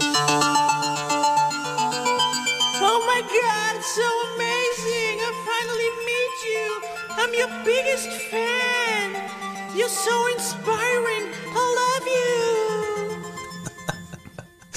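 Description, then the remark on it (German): A short intro jingle for star guests plays at a steady, loud level, with low sustained notes joined after a few seconds by a bright, wavering melodic line that continues until the music cuts off. “Jingle zu spielen für Stargäste”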